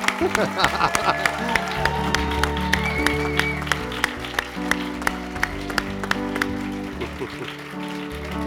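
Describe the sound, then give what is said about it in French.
A standing audience applauds steadily for several seconds, dense clapping with sharper individual claps standing out, mixed with a murmur of voices and cheers throughout. “Et puis, vous allez nous applaudir de vous accueillir.”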